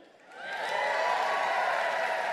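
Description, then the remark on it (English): A crowd bursts into cheering and applause, swelling quickly from quiet to a loud, sustained roar of clapping and whoops that fills the space. “Make some noise if this brings great joy to your soul.”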